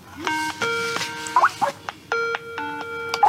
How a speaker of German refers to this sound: Dann klingelt Isaac auf Skype durch.